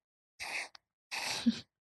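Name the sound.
breathing into the microphone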